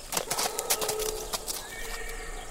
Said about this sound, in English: Plodding behind the wagon, pulled by a rope, was a horse named Texas.